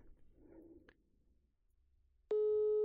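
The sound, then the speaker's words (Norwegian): A telephone ringing tone cuts in loud and steady near the end as a call is being placed, following a few quiet seconds of faint handling noise and a soft click. No one speaks. “Så tenkte jeg bare vi skulle ta en kjapp, liten telefon”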